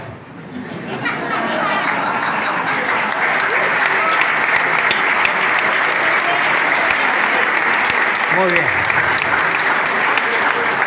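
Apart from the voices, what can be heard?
audience applause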